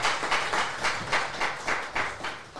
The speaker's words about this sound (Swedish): Ja, han får en liten applåd, Marcus Eriksson.